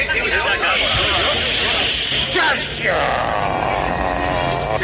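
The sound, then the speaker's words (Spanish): A voice imitates a buzzing hiss like a fairground firework rocket, a steady, fairly loud whooshing drone lasting several seconds with slight wavering rises and falls. “Pues mire usted, un ruido algo así como, como un zumbido, como”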